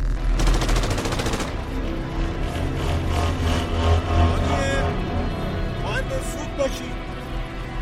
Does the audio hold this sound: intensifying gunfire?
yes